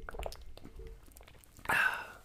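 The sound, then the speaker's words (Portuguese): Someone drinking water, with soft wet mouth clicks and small swallows, then one louder, breathy gulp near the end. “Isso exagera mesmo no som da água, assim.”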